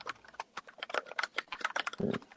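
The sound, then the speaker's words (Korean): Rapid keyboard typing, a steady stream of quick clicks and key taps, fairly busy and uneven in rhythm, with a slightly heavier thump near the end. “타자 소리가 나고 있습니다.”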